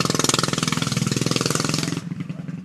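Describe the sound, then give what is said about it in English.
A motorcycle roars past outdoors, its engine a loud, rapid rattling pulse that holds steady for a couple of seconds before dropping away to a quieter rumble. “A motorcycle is passing by.”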